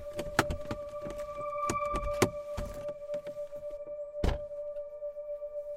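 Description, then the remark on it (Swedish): Inside a stopped car being parked in a small parking lot by an entrance to Gälstaviken nature reserve outside Enköping, Sweden, on a cold, windy October day: a steady hum with a tonal whine, scattered clicks and thunks, then a sharp thump near the end like a door or latch closing. No one speaks. “Vi parkerar bilen på den lilla parkeringsplatsen vid en av ingångarna till reservatet.”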